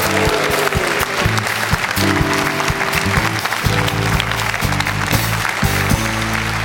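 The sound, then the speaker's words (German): Loud, sustained applause from a crowd congratulating someone on a birthday, a dense wash of clapping that stays steady for several seconds, with a low hum and faint tonal sounds underneath. “Sie hatte am Freitag Geburtstag und wir gratulieren nochmal mit einem donnernden Applaus,”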